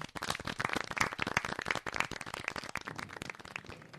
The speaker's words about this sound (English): Today, we have a special performance from the Scarlet Meadows Community Theatre Players, who will be reenacting the scene. Well, sure. Clap it up.